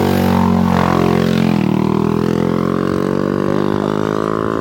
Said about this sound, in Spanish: un motorista pasa por donde estábamos andando nosotros es que se ve que esto es una carretera yo no lo sabía ah, maldita huerta cualquiera puede pasar aquí con una moto